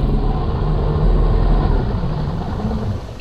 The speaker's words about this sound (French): Un moteur. Il bondit sur ses jambes. Un bateau approche de son île et au loin, on voit un cargo.